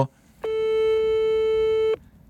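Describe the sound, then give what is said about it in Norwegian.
A single steady electronic ringback tone of an outgoing phone call to a political expert sounds for about one and a half seconds, clear and fairly loud, then cuts off, leaving faint background noise before and after. “Vi ringer Kadar Bire.”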